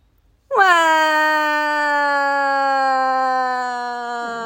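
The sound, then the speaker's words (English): A single loud, drawn-out crying wail from a voice, holding one high, steady note for about four seconds while sagging slightly in pitch, with no talking around it. “Keep crying.”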